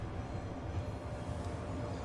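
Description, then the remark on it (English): A train bound for Warsaw departs from a station, a steady, heavy low roar of rolling wagons that holds an even loudness throughout, with no voices. “This wasn't the train. It departed right in front of my eyes.”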